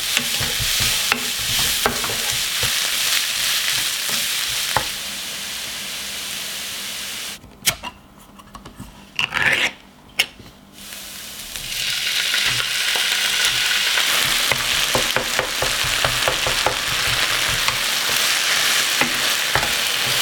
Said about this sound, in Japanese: 今朝はキーマカレーの美味しい音色それではお聴きください